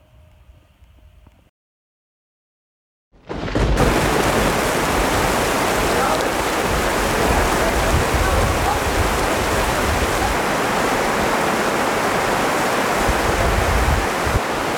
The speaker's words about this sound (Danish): Men nu er der altså regn for vej, så vi har heldigvis lige fået slået lejren op, inden det her uvejr, det rammer os.